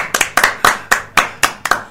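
Loud, steady clapping from a small audience, sharp crisp claps about four per second with a few doubled hits, and no one speaking over it.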